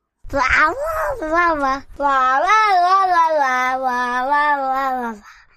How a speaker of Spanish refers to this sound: Mira que mi gato tiene algo para agregar. ¿Vos también?